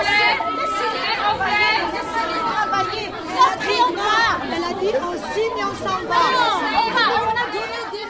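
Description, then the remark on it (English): Many women's voices shout over one another at once as a women's assembly turns chaotic, a dense, high-pitched clamor that stays loud and steady throughout, with no single voice standing out from the din. “Many were shouting at the same time and no one could understand anything.”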